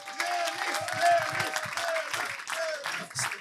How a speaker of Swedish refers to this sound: Så eh, en stor varm applåd för kungen från Matfors.